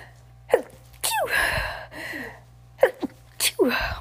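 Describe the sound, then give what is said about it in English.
A sneeze bursts out after a couple of sharp inhaled gasps, followed by a second sneeze with short catching breaths before it. Both are fairly loud, with no talking around them. “Oh, I'm going to sneeze.”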